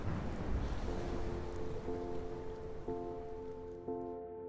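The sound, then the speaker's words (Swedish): Steady, hissing rain pours down continuously while low, sustained wind-like tones swell in and restart every second or so, with no voices. “Ni eh, raskar er över i regnblåsten och kommer in i herrgården.”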